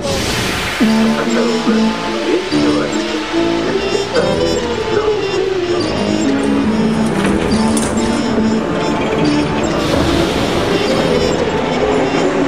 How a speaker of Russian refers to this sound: Это действительно метро.